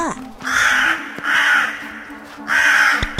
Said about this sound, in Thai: เมื่อเจ้ากาได้หยุดร้องเข้า เขาก็ได้หยิบอาวุธขึ้นมาแล้วได้เดินหน้าต่อไป แต่เจ้ากานั้นได้กลับส่งเสียงร้องทักเขาอีกครั้งหนึ่งว่า